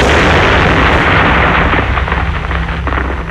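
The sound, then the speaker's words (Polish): A loud explosion of explosive material from careless handling, with a deep rumbling roar that fills the whole range, then a long crackling, debris-filled tail that slowly fades without dying out. No voices. “Tak kończą się nieostrożne zabawy z materiałami wybuchowymi”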